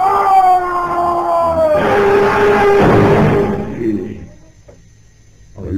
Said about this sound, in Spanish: Cuando de pronto oyeron un grito lejano.